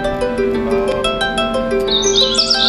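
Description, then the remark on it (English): An alarm rings out with steady, tonal, electronic-sounding notes that shift in pitch, fairly loud, with higher chirping tones joining near the end. No one speaks. “Um, you hear that alarm, you can make it know.”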